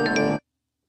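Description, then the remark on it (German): A short, bright electronic chime of two quick tones, like a phone message notification, rings out clearly and then cuts off abruptly into silence. “diesem letzten Ding, ne, bei diesem didim, didim, didim, das klingt so, als wenn du irgendwie Nachrichten auf Handy, aufploppen.”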